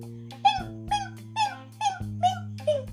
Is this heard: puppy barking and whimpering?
yes